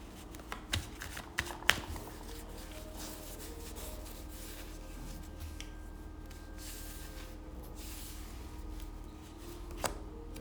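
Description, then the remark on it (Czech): A deck of tarot cards is shuffled steadily, a continuous papery riffling with a few sharper snaps near the start and one near the end. No voices. “A já už se dívám na vaši fotku, míchám toho karty a my se spolu podíváme, co nám Tarot poví o vás dvou.”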